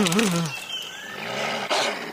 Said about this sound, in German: Was? Ich kann doch den Wolf nicht ignorieren.